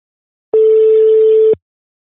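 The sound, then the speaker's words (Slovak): A single outgoing telephone ringing tone on a call to a designer: one steady, mid-pitched electronic beep lasting about a second, loud and alone, with silence before and after and a faint click at each end. “a poďme skúsiť zavolať e, človeku, ktorý navrhoval nový dizajn”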